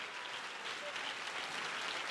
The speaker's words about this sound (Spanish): pero si ese es el aplauso para tu padre.